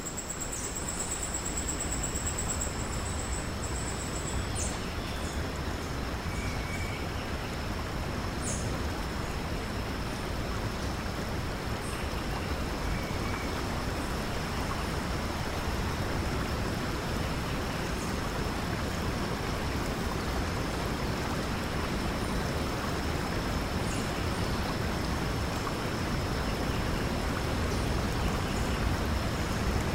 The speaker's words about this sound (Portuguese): Chegamos na margem do rio e avistamos ao longe uma queda d'água.